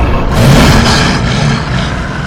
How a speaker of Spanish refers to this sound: Finalmente llego al cruce de la carretera. El coche sigue allí, apartado en la calzada. Me subo al coche y trato de encenderlo, pero el motor no arranca.